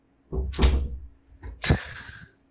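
A door being opened nearby: a couple of dull wooden thumps and handle clunks, then a sharper latch click with a short metallic ring, no voices.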